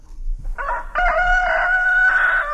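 A rooster crows loud, a single drawn-out cock-a-doodle-doo with a choppy start rising into a long sustained high call that holds to the end.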